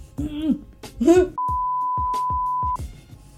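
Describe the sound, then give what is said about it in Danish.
A steady electronic censor bleep over a swear word, about one and a half seconds long, cuts across a man's speech, with his talking continuing faintly underneath and around it. “Og du bliver altså nødt til at ramme din beep lidt bedre.”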